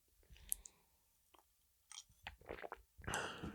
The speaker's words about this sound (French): Quand vous m'entendez boire une petite gorgée d'eau, là c'est parce que je bois une gorgée d'eau.